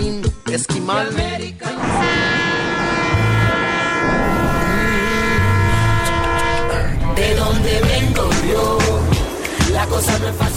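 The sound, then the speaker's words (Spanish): A freight train, the one migrants climb onto to reach the other side, rumbles and clatters steadily along the tracks, with a long, loud, sustained horn blast holding a chord through the middle before the rolling clank continues alone. “porque así le llaman al tren donde se suben para llegar al otro lado.”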